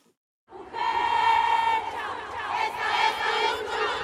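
crowd chanting

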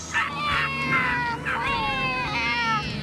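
cat meowing

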